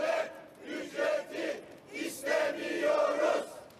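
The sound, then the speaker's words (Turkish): A large crowd of retirees protesting price hikes chants slogans such as 'we want to live humanely' in rhythmic bursts, many voices shouting together, loud and reverberant, with brief dips between phrases. “Yarın olağanüstü toplanacak meclise insanca yaşamak istiyoruz sesi yükseltiliyor.”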